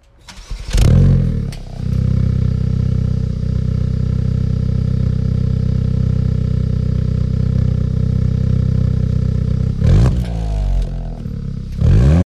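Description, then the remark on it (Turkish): A Hyundai i20 N car engine in N mode starts with a sharp rev, then holds a loud, steady, rumbling idle before flaring into another quick rev near the end, with no talking. “Bölüm sponsorumuz Hyundai i20N'in en motor sesi bu. En modundaki motor sesi bu.”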